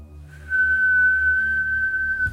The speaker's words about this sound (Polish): Gwizdek w czajniku, mhm. ona zalewa herbaty.